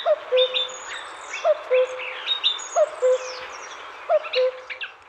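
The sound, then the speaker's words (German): A common cuckoo repeats its two-note falling call four times at a steady pace, clear, while other small birds chirp and twitter in the background. “Ja, der Kuckuck legt seine Eier gerne mal in die Nester anderer Vogelarten und haut dann letztlich ab.”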